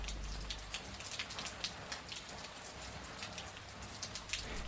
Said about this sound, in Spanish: Aunque hay quienes creemos que la felicidad se parece bastante a poder dormir un ratito más cuando uno una se despierta y escucha la lluvia.